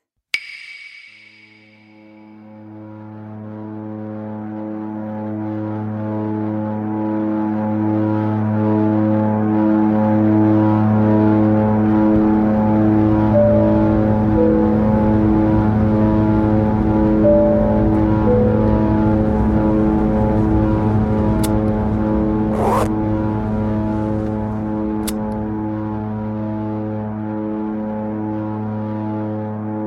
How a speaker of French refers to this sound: Mon avion est rouge, minuscule, soutenu par deux hélices ridicules dont l'effort de nous porter fait trembler jusqu'au siège, auquel je m'accroche nerveusement.